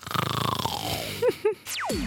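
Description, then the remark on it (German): Cartoonish snoring sound effect: a rattling, descending snore, two short snorts, then sliding whistle-like glides, fairly loud, with no talking. “Ja, das Schnarchen, das wird auch leise dadurch.”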